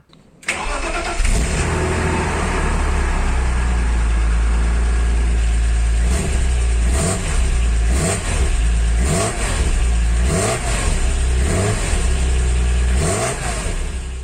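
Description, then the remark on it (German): A BMW Z3 M Coupé's S54 straight-six engine starts up and is revved repeatedly, loud, with rising and falling bursts over a steady idle and no one talking. “Und wie das MQP mit diesem Motor so klingt, das hören wir uns jetzt mal kurz an.”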